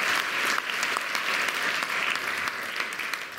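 An audience claps steadily for a few seconds to applaud the Lord, a dense, even wash of many hands with no voices rising above it.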